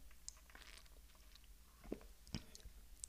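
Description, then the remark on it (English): Quiet sipping of ginger tea from a Starbucks tumbler, with soft wet mouth clicks and a couple of gulps or swallows over faint background hiss; no one speaks. “So, I'm drinking some ginger tea out of like a Starbucks tumbler to make myself feel better and make myself like actually drink it.”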